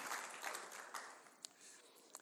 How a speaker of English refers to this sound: He's my illustrative lion uh, for today. In fact, you can give him a little round of applause. I think that is that is awesome.